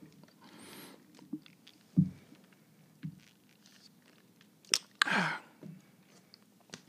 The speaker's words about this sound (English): I guess I gotta take a sip.